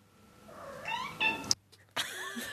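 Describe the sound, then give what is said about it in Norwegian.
A cat lets out a string of chirpy, squawking calls that sound oddly parrot-like, close and fairly loud, broken by a sharp click and a brief pause before another warbling cry. “Jeg måtte bare, beklager, ikke, Nå sporer jeg av, men jeg måtte bare henge meg opp i at katten høres ut som en papegøye.”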